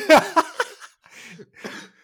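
A person coughs several times in quick succession, short sharp bursts followed by two longer, breathier hacks, sounding deliberate and fake, close but slightly in the background with no talking.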